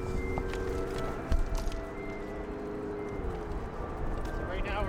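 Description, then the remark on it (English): Quick footsteps patter across pavement as someone darts across a street near a freeway on-ramp during a huge lull in traffic, over a steady roar of traffic and wind, with one sharp knock partway through. “darting across the street during a huge lull in traffic.”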